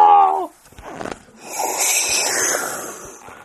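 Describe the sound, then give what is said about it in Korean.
A loud, brassy fart sound from a daughter-in-law in a folktale bursts out briefly, then gives way to a long, airy whooshing rush, the fart's blast of wind, that lingers for a few seconds. “아이고 이게 뭔 소리야? 방귀 소리 한 번에 오날치게 크다.”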